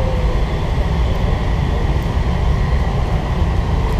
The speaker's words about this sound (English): That's what it feels like sometimes when you're on the subway because it's just going you you see the lights around you.